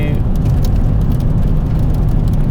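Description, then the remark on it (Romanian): Steady low road rumble from a moving vehicle, with scattered quick ticks and patters of small debris thrown up by a truck ahead striking the car, irregular and fairly faint over the drone. “Am, avem un camion în față mm. și aruncă tot felul de mizerii în noi.”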